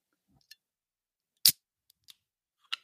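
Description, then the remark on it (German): A can of Fanta cracks open with one sharp, bright pop and a brief fizz, surrounded by a few small metallic clicks from the tab. No one speaks. “Es ist eine Dose Fanta und ich trinke eigentlich nie Fanta”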